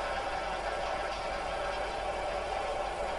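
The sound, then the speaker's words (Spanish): A car engine idles steadily with a constant, even rumble and hiss, with no voices and no change in pitch throughout. “Ah, estaba esperando a que le viniera a recoger en coche.”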